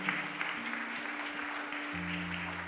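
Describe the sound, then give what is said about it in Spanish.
An audience applauds, a dense, steady wash of clapping that holds for a few seconds over sustained low keyboard tones, with no one speaking. “Den un aplauso fuerte a papá.”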